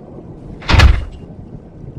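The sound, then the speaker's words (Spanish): A single heavy thud with a broad burst of noise rings out briefly as a bedroom door suddenly slams shut on its own, then fades back into a low, rumbling background. “De repente la puerta del cuarto se azotó de la nada y se cerró.”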